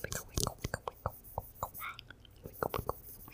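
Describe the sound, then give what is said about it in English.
Microphone handling noise: irregular crackling thumps and scratchy rustles as the mic is wiggled, a rapid uneven series of soft bumps over a few seconds with no clear talking. “Why are you wickowing that mic? Because it makes a cool sound.”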